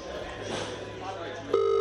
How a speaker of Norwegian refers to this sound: Han ringer tillbaka men får ikke svar.